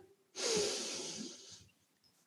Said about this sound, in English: Everybody, take a breath wherever you are in the world listening to this right now. Let's breathe in.